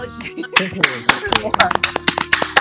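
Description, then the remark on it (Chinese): Scattered applause from an audience, with sharp irregular hand claps of varying loudness over a murmur of voices, lasting a few seconds. “成绩完，大家拍手。”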